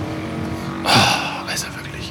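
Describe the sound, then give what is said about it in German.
A motorcycle engine drones steadily on Good Friday, its low hum rising into a louder, rushing swell as it passes, followed by a few fainter noisy bursts. “Muss es sein, am Karfreitag, Motorradfahren”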